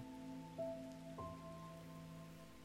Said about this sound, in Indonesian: Apalagi sekarang cuaca lagi hujan mungkin hampir merata ya se-Indonesia hujannya.